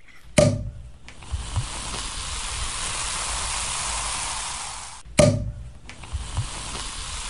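A sharp pop as a champagne bottle is opened gives way to several seconds of steady fizzing hiss, then a second pop with more fizz. It's clear, with no voices.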